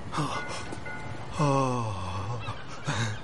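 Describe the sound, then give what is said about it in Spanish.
Seagulls call above a riverside promenade in three harsh, squawking bursts: a short cry, then a long drawn-out wail that slides downward, then another brief squawk, with no talking. “Señala unas gaviotas y luego una fragata que surca el río.”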